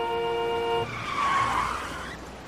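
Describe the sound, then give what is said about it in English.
Car tires screech in a sustained, high-pitched squeal, then give way to a loud, rushing skid that swells and fades against a steady wash of traffic on Grand Central Parkway, a highway in Queens, New York. “You look out the window, you see the highway there, you hear the sounds.”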